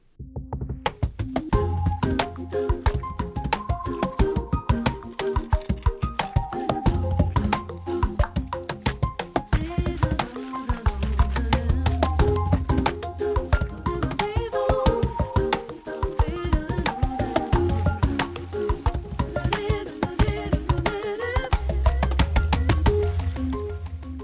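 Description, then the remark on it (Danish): Music made entirely from the sounds of vegetables plus a human voice, some parts played by a drummer and some programmed on a computer: a steady beat of deep thumping hits and crisp clicky strikes under sustained melodic tones, playing continuously at a fairly strong level with no talking. “Men det er 100% skabt af lyden af grøntsager samt et menneske, alt hvad vi hører, det lyder sådan her.”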